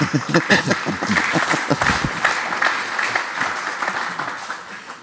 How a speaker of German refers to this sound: Sie dürfen übrigens auch klatschen.